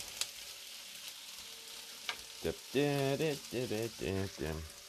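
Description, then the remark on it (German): Leberkäse strips fry in a pan alongside Schupfnudeln with a steady crackling sizzle, joined by a few sharper pops, while a voice speaks over the second half. “So, dann zu den Schupfnudeln kommen jetzt unsere Leberkas-Fledel schon mal mit dazu. Die können jetzt schon mal nebenher etwas anbraten, weil wir müssen Platz auf dem Schneidebrett brauchen.”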